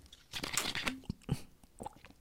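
Crinkling of a plastic bottle being squeezed while someone drinks from it, a series of irregular crackly crunches spread over a couple of seconds, with no one talking.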